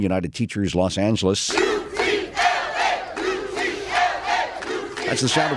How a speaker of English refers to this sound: protesters outside Bravo Medical Magnet High School. They were addressed by the union president, who says she thinks it's vital teachers get better pay and benefits.